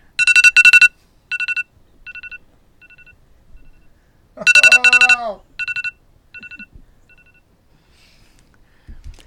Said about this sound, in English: Okay, so your alarm clock goes off. 6 a.m. It's 6 a.m. Good Morning.